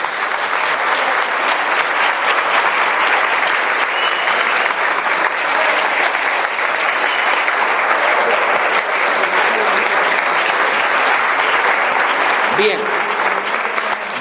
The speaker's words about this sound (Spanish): Y lo ratificamos con un fuerte aplauso hacia todos nosotros.